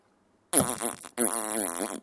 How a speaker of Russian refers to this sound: Пердеж в твои уши и в мои.